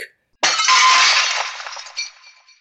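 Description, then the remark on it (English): A sudden, loud crash of the glass of an observation deck shattering as a giant crab-like creature crashes through it, followed by a bright spray of tinkling shards that rings on and gradually fades over about two seconds, with a smaller clink near the end. “However, just then, the giant crab like creature crashes through the glass of the observation deck.”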